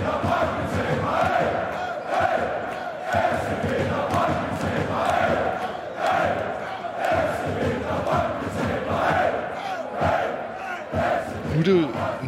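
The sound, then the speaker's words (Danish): A large crowd of fans sings a chant in unison, a dense, steady roar of many voices with rhythmic swells and shouted accents running throughout, loud and sustained with no pauses. “Men så kunne vi jo synge det i stedet for.”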